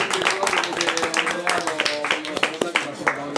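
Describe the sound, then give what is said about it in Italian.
A small group applauds a recurring guest as he is introduced on a broadcast, with brisk, uneven clapping that stays fairly loud throughout, while voices cheer and call out over the claps. “Un applauso”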